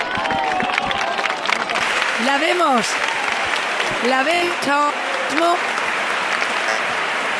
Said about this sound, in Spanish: Acaba de salir de la ermita. Recibida con aplausos. Todo el mundo captando este momento Acaba de pasar la Virgen. Ya está en la mitad de la explanada la Virgen del Rocío.